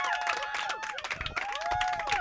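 An audience applauds at the end of a performer's set, with dense, steady clapping for a couple of seconds and sliding whistle-like tones and cheering mixed in over the crowd.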